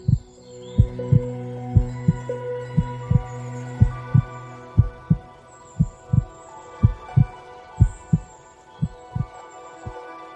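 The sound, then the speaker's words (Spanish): A slow, steady heartbeat thumps about twice per second over a soft, sustained hum and tonal drone, with no voices present. “Percibe como la calma se apodera de los latidos de tu corazón.”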